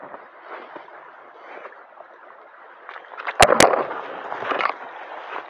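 A steady rush of flowing water of the Gold Run stream, with a bubbling, gurgling texture. It grows a little louder toward the end, and two sharp knocks briefly cut through partway in.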